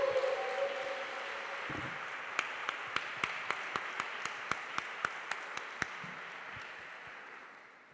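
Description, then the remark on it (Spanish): An audience applauds in a steady, dense wash of clapping, with a run of sharper, evenly spaced claps standing out in the middle before the applause slowly fades. “Un fuerte aplauso.”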